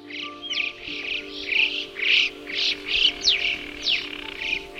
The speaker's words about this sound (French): Et je suis d'ailleurs tombé à la renverse la première fois que j'ai entendu le chant du chocard à bec jaune. Pour moi, c'est le plus mélodieux de toute la bande.